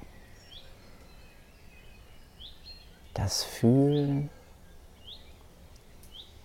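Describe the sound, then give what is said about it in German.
Small birds chirp softly in the background, short high tweets recurring every second or so across the whole stretch, while a voice briefly speaks in the middle. “das Zusammensein mit allem, was ist, die Natur, die Vögelchen.”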